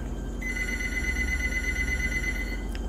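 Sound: telephone ringing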